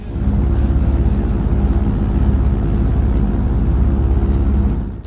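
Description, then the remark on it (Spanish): A private jet's engines roar loudly in a steady, dense rumble as it approaches, swelling in quickly and tapering off at the end, with no voices. “Oyes ese, jet privado que se acerca hacia aquí.”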